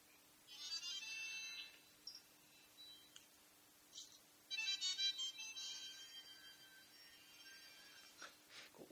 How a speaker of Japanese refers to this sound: まあ、50回記念ということもありましてあの第1回の「猫背ラジオ」のちょっとオープニングだけちょっと聞いてみようかなっていうふうに思ってまして、うん、ちょっと今流してみましょうか